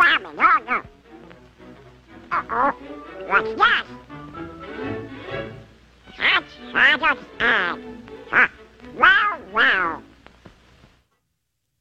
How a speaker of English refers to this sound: Who was that? That is Daffy Duck.